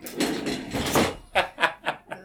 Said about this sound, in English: I'm going to flip over a chair.